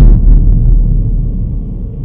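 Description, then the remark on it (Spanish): A single loud, heavy bang, like a fist or body striking a front door, followed by a deep booming rumble that slowly fades over about two seconds. No voices. “De repente, un fuerte golpe resonó en la puerta principal.”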